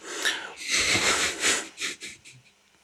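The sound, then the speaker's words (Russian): A breathy yawn: a long drawn, airy inhale swelling loudly, then a few shorter fading puffs of breath trailing off, with no talking. “Ах ты, сука, зеваешь”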